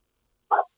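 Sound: dog barking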